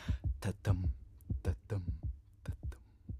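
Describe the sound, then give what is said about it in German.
A muffled heartbeat of a mother as heard by a baby inside the womb: steady, fairly quick low thumps in pairs, with a soft whooshing wash between beats, moderately loud with no voices. “Da hört man mich schon im Mutterleib, als kleines Baby, als Herzschlag der Mutter.”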